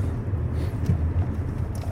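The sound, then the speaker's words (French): A steady low rumble from inside a moving old Jaguar Sovereign car, the engine and road noise droning evenly with no voices, moderately loud throughout. “c'est la voiture de votre père Oui. Enfin, c'est la dernière qu'il ait eue.”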